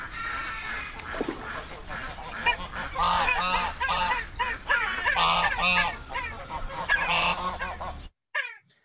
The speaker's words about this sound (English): And don't forget your friendly neighborhood ducks.